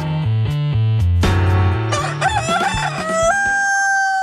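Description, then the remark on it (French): Gentle plucked melodic notes of Thai music give way to a loud rooster-like crowing call, with warbling bird calls overlapping and a long held tone fading out at the end. “pour cette douce musique thaïlandaise et ses oiseaux.”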